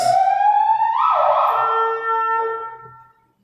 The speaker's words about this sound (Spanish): Qué oportuna la patrulla, pero bueno.